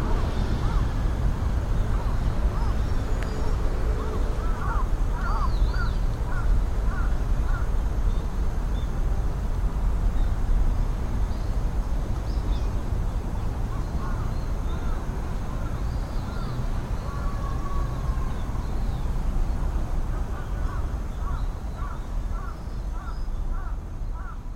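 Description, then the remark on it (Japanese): Steady outdoor ambience recorded at the site of the Hihaizuka Kofun, a 6th-century keyhole-shaped burial mound in Kasuga, Fukuoka Prefecture, Japan, with a constant low rumble of wind and traffic, while crows caw in short repeated bursts, once early on and again near the end. “で、今その跡地があって、その跡地で取った環境音ということになりますかね。”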